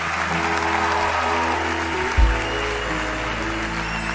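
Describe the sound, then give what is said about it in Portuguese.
A large church audience applauds and cheers in a dense, steady wash of clapping, with a brief low thump partway through and no clear speech. “Muito obrigado, faz barulho, igreja!”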